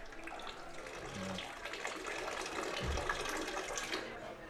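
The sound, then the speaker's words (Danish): Urination and running water splash continuously into a urinal at the Ballygrand Inn pub, with a dense hissing stream throughout and faint indistinct voices underneath. “Lyden af pis og løbende vand på pissoaret på Ballygrand Inn.”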